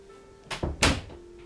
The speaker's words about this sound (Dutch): Ik doe wel even de deur dicht, want eh